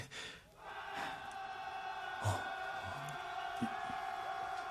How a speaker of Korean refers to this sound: 바, 밖에서 무슨 소리인가? 아, 의병들 소리입죠. 농계의 죽음의 용기를 얻은 의병들이 각지에서 들고 일어나 아주 난리도 아닙니다요.